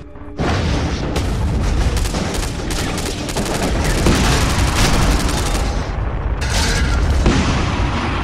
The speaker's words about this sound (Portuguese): o bombardeiro caiu próximo de vocês.